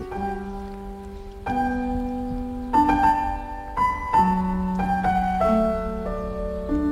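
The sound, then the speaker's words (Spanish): A classical aria slowed down 500 times: long, sustained tones that shift to new chords every second or so, drifting like a drone, with a soft grainy hiss underneath and no voices. “la de las variaciones Goldberg de, Juan Sebastián Bach, ¿no? Y, pero lo que hacen es ponerla 500 veces más lenta”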